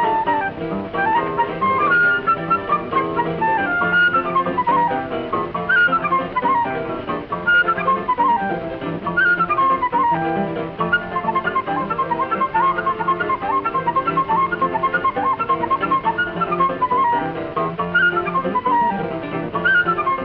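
A flute plays a lively, fast-running choro melody with quick ornamented phrases over steady accompaniment, heard through a muffled, old-sounding recording with no talking.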